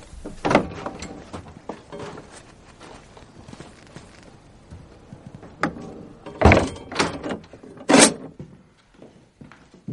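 A convent door is opened by a nun with a series of sharp clunks and scraping, loud bursts around the start and again near the end, with shuffling footsteps in between and no voices.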